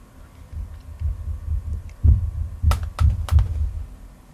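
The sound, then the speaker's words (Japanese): A young son upstairs on the second floor, awake and irritated, thumping on the floor: a run of dull, low, muffled thuds in an uneven rhythm, with a few sharper, louder bangs toward the end. No one speaks. “なんかどんどん音がするんで、えー、2階の様子を見てきたらですね、次男坊が目を覚ましていて、なんか、えー、イラつくと言ってドスドス床を叩いていました”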